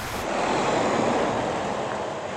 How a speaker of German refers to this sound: Das Flüsschen wird hier an einem Wehr aufgestaut.